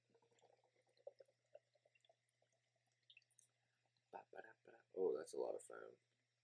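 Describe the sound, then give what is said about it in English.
Lemon Glow hazy pale ale by Land Grant glugs and splashes into a glass in a series of quiet, uneven bursts, followed by a loud burst of vocal sound near the end. “I fucked up that pour. Something serious.”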